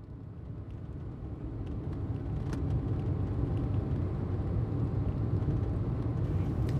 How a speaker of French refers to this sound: La nuit était tombée et il roulait désormais au milieu de la lande